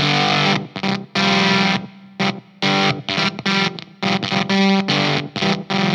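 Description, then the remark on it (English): Heavily distorted, high-gain electric guitar, a Strat with its volume halfway, plays loud chords and notes that cut off abruptly into silence, a noise gate chopping each phrase into choppy bursts with no one talking. “Still very gainy. Yeah. But you can hear how the gate is chopping off.”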